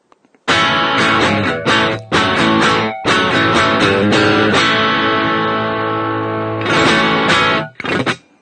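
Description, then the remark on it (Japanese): A loud electric guitar played through a Tube Screamer overdrive pedal, all knobs set to the middle, plays a run of sustained, gritty chords with a few brief pauses between them, with no voices over it. “まずじゃあ、チューブスクリーマーからいきましょうか。”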